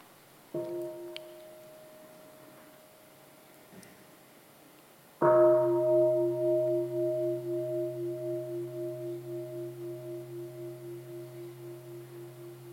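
A bell sounds twice, first a soft tap and then a full, loud strike whose rich tone hangs and slowly fades with a pulsing shimmer over several seconds, with no voices.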